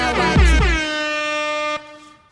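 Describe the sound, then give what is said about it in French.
A brief, loud show jingle with a brassy, horn-like tone that swoops up and then holds a bright sustained chord before cutting off abruptly after about two seconds. “Allez, jingle.”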